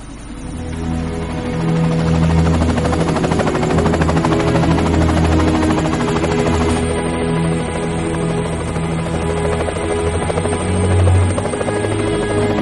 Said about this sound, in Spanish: Llega un helicóptero. Los camilleros llevan a Lisbeth hacia el helicóptero. Bloomfish mira triste como despega.